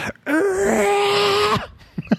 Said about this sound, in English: an episode that still lives in infamy of Silva and Gold, primarily because of the scream that still haunts my days and nights.